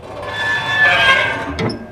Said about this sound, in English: I hate that. Huh. The creaking. Like every Magi wants to give off an 80s slashers vibe. I know they can afford WD 40.